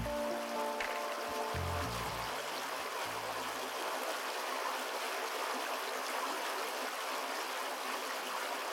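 A steady, continuous rush of flowing river water in Akita, Japan, fairly loud, with a soft low musical tone fading out in the first few seconds before the water carries on alone.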